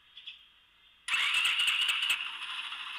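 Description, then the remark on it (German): A small 125cc motorcycle engine starts up: a brief thin whir, then it suddenly catches with a loud, rattly roar and keeps running at a raspy, buzzing idle. “Es ist einfach eine freaking äh, 125er, ne?”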